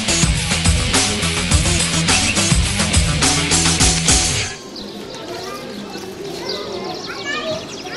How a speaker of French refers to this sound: On est bien là, hein Ouais c'est beau, les oiseaux, la nature, les fleurs, euh, tout ça quoi.